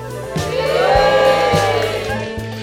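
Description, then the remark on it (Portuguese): The live audience of a show in the south zone of Rio de Janeiro, on a Friday night, cheers in a steady, dense roar that swells slightly and holds for a few seconds, with a low, stepping musical bass line running underneath. “Vocês vão ouvir também o som da plateia.”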